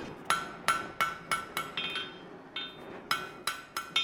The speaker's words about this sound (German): Die Magie des Schmiedens wird im Halbdunkel der Werkstatt voll spürbar. Die Feuerfarben, das Spiel mit den Elementen, der Dampf, die Gerüche nach Eisen und Schwefel.